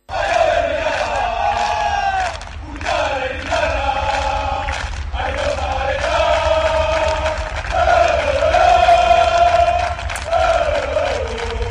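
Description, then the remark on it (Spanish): A large crowd of Real Sociedad football fans at Zubieta chants and cheers loudly and continuously for their team, voices rising in sustained, rhythmic singing with brief dips before surging again. “Hoy la afición se ha presentado en Zubieta para animar así, escuchen, a su equipo.”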